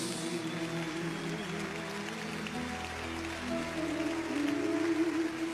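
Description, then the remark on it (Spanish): A large crowd claps continuously for people as they come forward, a dense steady patter of many hands over sustained keyboard-like music, growing slightly louder toward the end. “Clap for them as they come.”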